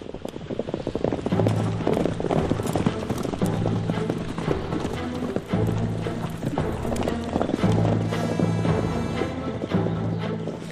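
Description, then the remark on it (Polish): Horse hooves clip-clop steadily and continuously, fairly loud, over a dense background with a low droning tone that swells and fades every couple of seconds. “Teraz już może mniej, ale kiedyś, jak się tu przeprowadziłem, często bywałem tu e, świtem albo w nocy to ten szum, ten wiatr, to wszystko, ten ten, ten koni, to się po prostu słyszy. On tu jest cały czas.”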